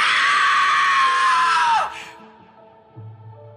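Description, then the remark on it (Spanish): A woman who has opened a trunk upstairs lets out a long, piercing scream at full force, lasting nearly two seconds before it breaks off and drops away, leaving quiet with a faint low hum. “Y fue aquí que la señora gritó con todas sus fuerzas.”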